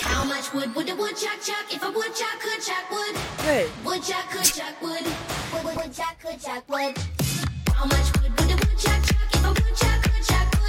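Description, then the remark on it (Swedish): A Swedish bass-heavy pop dance track, popular in Romania, with a pounding, regular beat and booming low end, bright synths and a voice singing and chanting repetitive lines over it; briefly thins out midway before the beat slams back. “även där måste det vara populärt med EPA och A-traktorer med ste stora stereoanläggningar och feta basar.”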